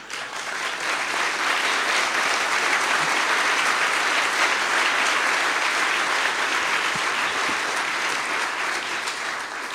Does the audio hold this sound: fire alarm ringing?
no